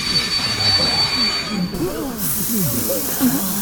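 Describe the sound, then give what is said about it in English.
A train rolls in on the rails with a steady, loud hiss and rumble, faint squeals and shifting tones running through it, and muffled voices mixed in underneath. “Get in the train.”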